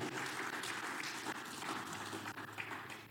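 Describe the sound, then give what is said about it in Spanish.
A crowd claps steadily, a dense, continuous patter of many hands filling the whole stretch at an even, fairly strong level with no voices standing out. “Yo le pagué a mi hijo para que comenzara a aplaudir.”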